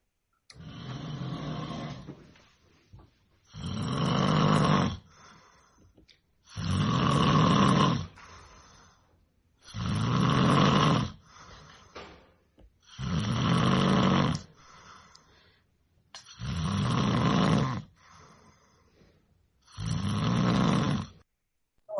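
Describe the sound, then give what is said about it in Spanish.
Loud, heavy snoring from a man whose partner cannot sleep because of it, about seven long rasping snores in a steady rhythm with brief quiet gaps between breaths, and no talking. “Mari Carmen Galarza mandó los ronquidos de su pareja por los que no puede dormir.”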